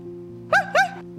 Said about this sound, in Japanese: と子犬は吠えましたそれを聞いて子ガモは言いましたわあなんて素敵な声なんだろう